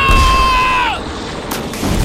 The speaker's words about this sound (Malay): Tembakan masih bertalu-talu. Langit bergempita.